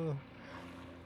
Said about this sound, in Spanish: Eso es un helicóptero.